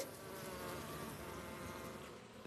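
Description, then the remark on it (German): A dense, steady hum of many honeybees buzzing around a young queen as a breeder checks her, a continuous droning swarm sound with no pauses and no voices. “Da ist die Jungkönigin. Die schaut sehr schön aus. Ist eine große, man sieht, sie rennt recht, ist fit,”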